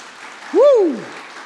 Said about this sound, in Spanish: Fuerte el aplauso a Él.